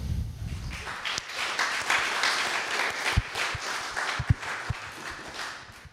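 A crowd applauds steadily for several seconds, a dense wash of many hands clapping at moderate volume, with a few sharper individual claps standing out near the end.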